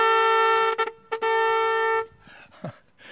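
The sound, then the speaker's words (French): A loud boat foghorn blares for about two seconds with a steady brassy tone, briefly stuttering twice before cutting off, leaving quieter background noise behind. “La corne de brume”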